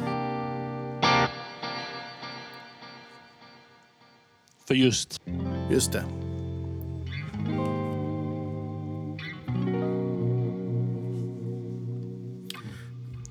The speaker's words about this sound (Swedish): Eh, och sen har jag en som är ett delay plus reverb, då, lite, lite större.